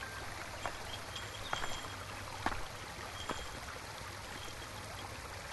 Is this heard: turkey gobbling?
no